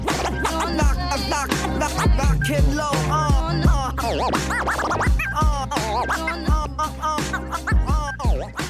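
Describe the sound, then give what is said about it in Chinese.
Rapid turntable scratches slice back and forth in jerky pitch sweeps over a steady, punchy hip-hop beat with deep bass hits, loud and continuous throughout. “小 Lazy Finger，这也不要 Lazy Finger，要刷 Scratch。”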